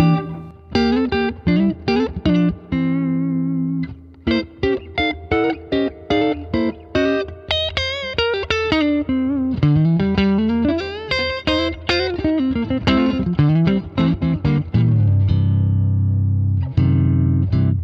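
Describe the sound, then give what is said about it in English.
An electric guitar on the neck pickup plays a flowing run of notes and chords with a smooth, warm, rounded, velvety, glassy tone, steady and fairly loud, with no voices over it. “velvety glass neck pickup”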